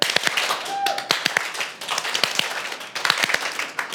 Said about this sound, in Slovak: Prosím vás, tleskneme čo najrýchlejšie trikrát po sebe. Čiže je to zrozumiteľné? Áno. Tak poďte trikrát po sebe.